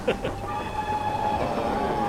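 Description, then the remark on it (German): A train rumbles along as the driver brakes on a steep downhill approach to the Pittsfield tunnel, its brakes giving off a steady, high metallic squeal, a sustained screech riding over the low rolling noise of the wheels throughout. “Der Lokführer bremst, denn es geht hier steil bergab.”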